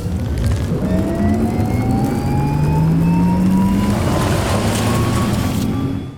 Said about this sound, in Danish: Vi har i ugens transformator prøvekørt Porsche Taycan Turbo Cross Turismo, intet mindre. En elbil med 600 heste